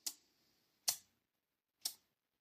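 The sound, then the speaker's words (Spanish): Three sharp tsk-tsk clicks made with the mouth, imitating the teeth clicking of a person with a negative attitude, spaced roughly a second apart in otherwise quiet surroundings with no talking. “suelen poner los ojos en blanco, pueden chasquear los dientes haciendo sonidos tipo”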